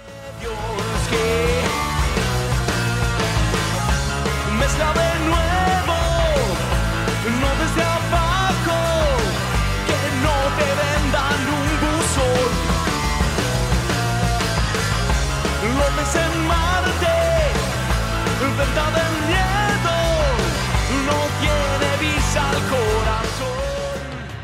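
A full-band song plays steadily at a loud, even level, with a melodic lead line gliding over thick sustained chords and a steady low end, fading slightly at the very end.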